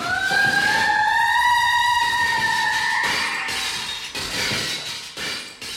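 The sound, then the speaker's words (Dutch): A bright ringing tone, like struck glass, hangs for a few seconds before a series of loud crashes and shattering bursts as a glass figure is smashed with a pipe. “En glas breek je niet met je handen. Hier, neem deze pijp.”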